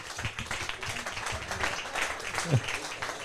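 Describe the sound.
A short burst of audience applause for a man called to the front, a steady, dense patter of many hands clapping at moderate volume, with voices murmuring underneath throughout.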